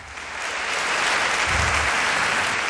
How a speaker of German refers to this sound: Applaus bitte.